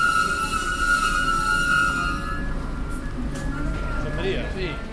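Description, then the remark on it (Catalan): Steady rumble of a moving passenger train heading to Portbou, Catalonia, heard from inside the carriage with few passengers aboard, a constant low roar, a sustained high whine, and faint voices talking in the background. “Poca gent al tren, eh?”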